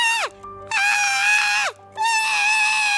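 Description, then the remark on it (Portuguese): A voice imitates the squeals of the youngest tiger of a circus: three loud, shrill cries in quick succession, the first two sliding downward at the end, with a long sustained final squeal. “E solta guinchos que me enervam assim.”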